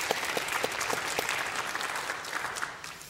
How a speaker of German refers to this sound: Nino Haratischvili, und ihr Roman Das mangelnde Licht erschienen in der Frankfurter Verlagsanstalt. Herzlich willkommen auf dem blauen Sofa. Ihr Applaus für unsere Autorin.